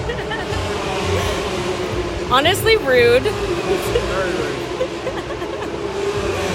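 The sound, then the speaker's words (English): Formula 3 race cars roar past, engine whine rising and falling over a constant rumble, loudest for a moment mid-clip. A person laughs and speaks briefly over the noise. “And I think once that happens, you know, you, you pretty much become hooked as the F3 cars roll by.”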